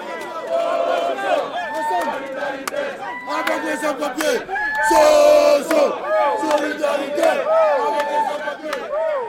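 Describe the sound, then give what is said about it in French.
A loud crowd of protesters without papers, demonstrating their discontent, shouts and chants together, many voices rising and falling in overlapping bursts, with a swell of louder yelling midway through. “Raison pour laquelle nous sommes venus manifester notre mécontentement”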